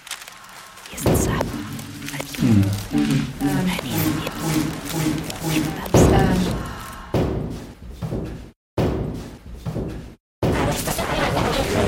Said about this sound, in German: Eine Tür. Und dann Schritte auf Holzboden.